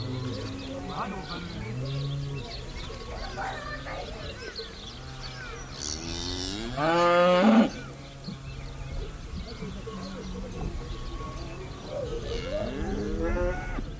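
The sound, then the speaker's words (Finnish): A herd of several dozen cattle moos repeatedly as they return from pasture along a village road to their own farmyards, several animals overlapping, with one loud drawn-out moo standing out midway and a soft background murmur throughout. “Erehtymättä jokainen lehmistä löytää omaan pihaansa.”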